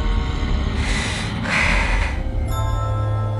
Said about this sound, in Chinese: 呼噜的声音已经十分的清晰，并且巨大，让雪梨心生厌恶。